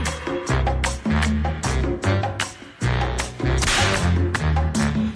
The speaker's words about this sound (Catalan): Sí, és que ara ja, ja, ja hi hem incorporat cops de fuet, ja veuràs.